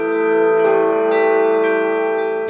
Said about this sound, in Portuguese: algumas igrejas luteranas e católicas mantêm a tradição de tocar o sino em horas específicas.